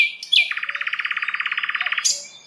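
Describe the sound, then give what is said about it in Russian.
A nightingale sings a fast, even trill of about twenty rapid repeated notes, bracketed by brief higher whistled phrases at the start and end, clear with no voices. “И у этих тук-тук-тук может быть разные, это трели как раз.”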